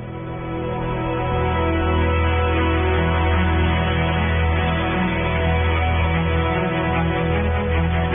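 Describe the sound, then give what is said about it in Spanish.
A pop song from a singer's first record: the instrumental intro fades in over the first second, then plays steadily and fairly loud with a full, bass-heavy sound and sustained chords, with no singing or talking yet. “Mañana seguramente vamos a escuchar la canción ganadora de este festival, pero por ahora le quiero presentar esta primera canción porque es el primer disco que lanza”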